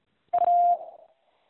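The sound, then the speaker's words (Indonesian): A single steady electronic beep signalling time to answer a quiz question, clear, holding one pitch for just under half a second before a brief fading tail, with no voices around it. “Silakan jawab setelah nada berbunyi.”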